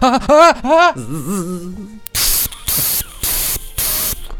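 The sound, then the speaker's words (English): A voice makes a warbling, robotic wail, then hisses out four sharp bursts of white-noise static in quick succession, imitating a Dalek extermination blast, loud. “That's the, you know, the the white noise Dalek extermination.”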